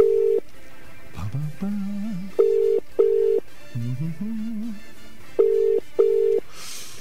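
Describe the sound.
A telephone ringback tone on an outgoing call to a doctor, placed by Net FM radio in Sydney, Australia: steady double-pulse rings repeating at regular intervals, clear, with a person murmuring briefly between the rings.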